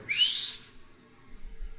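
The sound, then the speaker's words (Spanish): A single short, bright whistle that rises slightly in pitch and lasts about half a second, followed by near silence with only a faint low rumble. “Chiflido, confirmante, güey.”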